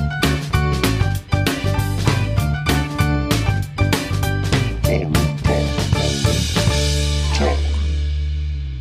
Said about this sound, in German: Aber wir haben ja auch so einen super Jingle. Das stimmt, den spielen wir nochmal ab. Ja, bitte. Geht los.